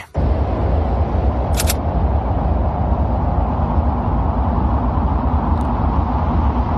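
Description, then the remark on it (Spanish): Steady, muffled low rumble of wind on the Martian surface as captured by the microphone of the Curiosity rover, constant throughout, with a couple of faint, brief clicks along the way. “Esto es el viento, está sonando, esto es el viento, y te voy a decir una cosa.”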